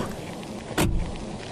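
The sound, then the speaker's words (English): A single sharp mechanical clunk of a car door unlatching and opening stands out clearly against a steady low hum of background noise, with no one talking. “The doors look like car doors. Open like them, too.”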